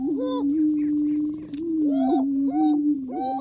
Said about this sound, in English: We leave you this week in the middle of a lek. Leks are breeding grounds where certain species, like these male greater prairie chickens, perform display rituals and compete for the affections of females.